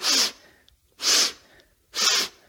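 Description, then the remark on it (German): A voice imitates a jogger's breathing with three loud, forceful breathy puffs, spaced evenly about a second apart in a steady rhythm, with no talking. “So gibt es auch Jogger oder Radfahrer, dann hört man dann so”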